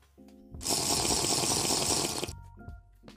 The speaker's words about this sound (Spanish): Lo siento que tomé agua.